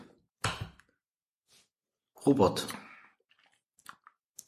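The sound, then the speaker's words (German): A ballpoint pen clicks a few times in quick, light snaps, mostly faint, with a person speaking and breathing out briefly in between. “Oh, jetzt hat er und Kuli. Ja, ja. Kuli gefiebt.”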